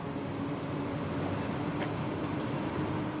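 A steady, loud rumble of a train at a train station, a continuous rolling roar with a faint metallic whine over it, unbroken throughout, with no voices.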